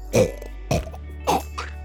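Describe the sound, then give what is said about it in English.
A Foley artist's voice makes four short, harsh retching bursts in quick succession, throaty and cough-like, imitating a frog throwing up a wedding ring as a sound effect for a film, with no speech around them. “Can you do a frog throwing up a, a, a wedding ring?”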